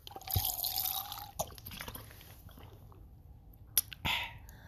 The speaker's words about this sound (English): Let me get a sip of water first.